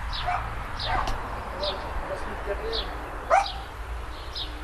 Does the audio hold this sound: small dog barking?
yes